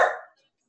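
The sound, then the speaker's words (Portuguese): A single short, sharp, loud bark from a pet dog that cuts off quickly and leaves silence behind it. “editar o cachorro latindo.”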